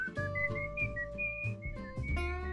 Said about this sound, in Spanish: el protagonista no sabía silbar. Entonces, el silbido que escuchamos es de Esa parte